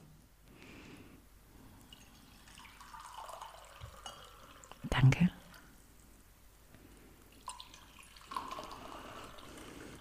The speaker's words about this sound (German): Wir haben ja hier auch noch den Tee, denn der Tee spielt gleich eine Rolle. Magst du uns mal was davon einschenken?